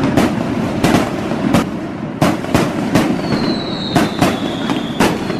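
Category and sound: sound effect, firework rockets exploding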